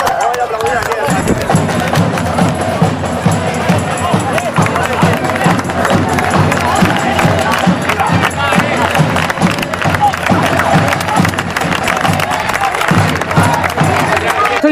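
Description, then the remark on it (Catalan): A loud, steady roar of football fans cheering and shouting at the football ground at the end of a match between Ripollet's team and Sabadell, many voices blending into a dense wall of crowd noise that barely lets up. “Al final del partit, l'ambient en el camp va ser aquest.”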